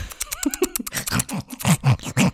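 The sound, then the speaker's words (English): Quick, irregular bursts of scratching and scraping by ferrets against a door, fairly loud, with a few small squeaky chirps mixed in among the scrabbling. “sound of the tit ferrets at the door.”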